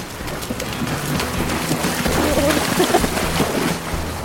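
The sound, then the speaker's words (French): Steady, dense rain hiss falls without pause by the sea on a surfing outing with big waves, with a low rumbling undertone beneath it and no clear voices. “Il y avait des grosses vagues et il pleuvait.”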